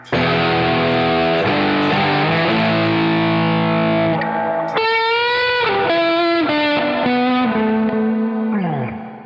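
A loud electric guitar plays sustained notes with a gritty, distorted bridge-pickup tone. Midway the tone shifts and a new run of held, bending notes rings out clearly. No one speaks.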